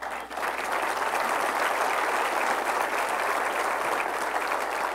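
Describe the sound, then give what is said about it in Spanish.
A crowd claps steadily and energetically, a dense wash of many hands applauding together at an even loudness for several seconds, with no voices standing out. “Si va a aplaudir, aplauda con ganas.”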